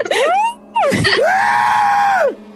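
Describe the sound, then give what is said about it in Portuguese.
A person imitates the pained cry of the video game character Francis falling, first a short rising yelp then a long, strained, sustained wail that drops off at the end, loud, with no other talking. “Não tá dar um Francis, quando cai, eu vou imitar.”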